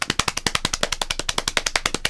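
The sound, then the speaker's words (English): A quick drum roll slapped out by hand on a lap: a steady, rapid run of about twenty dull, crisp slaps in two seconds, fairly loud, with no voices over it. “Drum roll, please.”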